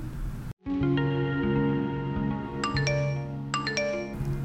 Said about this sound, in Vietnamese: Tiếng tin nhắn điện thoại vang lên lúc 6 giờ sáng chủ nhật